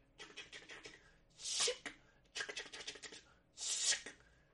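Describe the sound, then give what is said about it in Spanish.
Rapid clattering clicks come in four close bursts, separated by brief pauses, as someone mimes typing on an invisible typewriter. They are fairly loud, with no talking. “Mira cómo lo escribo en mi máquina de escribir invisible.”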